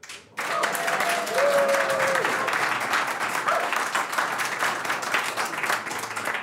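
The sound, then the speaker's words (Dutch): A crowd bursts into sustained, dense applause after a brief quiet start, many hands clapping continuously, with a few faint tonal whistles or cheers rising over it; a live audience at a Christmas tree event in Breukelen, Netherlands. “En vandaag komen we vanaf het kerstbomenfeest van onze partner mogelijk in Breukelen met publiek.”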